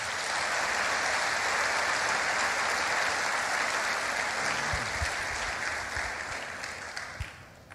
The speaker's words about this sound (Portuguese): E a igreja diz: aplauda ele mais uma vez.